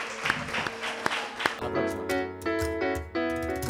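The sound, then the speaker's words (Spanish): A burst of audience applause for secondary-school students at a French international school in the Canary Islands, dense clapping for about a second and a half, then fading as a loud musical jingle with sustained tones starts and takes over. “Bueno, pues familia, eh, tenemos que parar porque además tienen que seguir con el, colegio y el día a día y el instituto eh, eh, y, se van a ir con un aplauso de toda esta gente, incluyendo a mí.”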